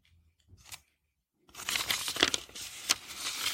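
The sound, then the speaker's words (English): A woman tears up a message on paper: a brief rip, a pause, then a longer, loud ripping and crinkling with sharp bursts, with no one speaking. “He perfected the art of tearing up paper.”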